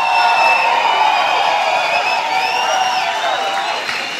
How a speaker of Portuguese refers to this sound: Se você acredita, enche o seu peito. Dá o maior grito de júbilo que você puder dar.